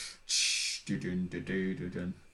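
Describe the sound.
A voice imitates the glass shattering from Stone Cold's wrestling theme song with one sharp, breathy hissing burst. Loud vocal sounds follow immediately in a choppy, rhythmic run of syllables.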